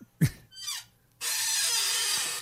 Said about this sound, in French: Je pense que ta chaise crie Aidez-moi.